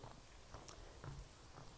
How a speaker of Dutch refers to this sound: Je hoort misschien het grind wel weer knarsen onder mijn voeten.